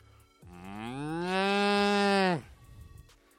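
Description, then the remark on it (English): A single long, rising moo about two seconds, made by a human voice imitating a cow with the teeth on the bottom lip, loud, with a rich harmonic drone before cutting off abruptly. “If you want to get like the like the um vibraty sound that they get because they, they have the whiskers in the mouth, you gotta just put your teeth on your bottom lip and just be like”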